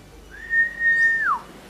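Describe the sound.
A person on Portinha beach whistles one steady, sustained note for about a second, then lets it slide downward at the end. It is soft, with no talking.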